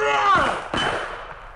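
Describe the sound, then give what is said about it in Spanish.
Two loud, sharp gunshot bangs in quick succession. They seem to be voiced by a person imitating the shots rather than real gunfire. “Pero en eso se oyeron unos disparos.”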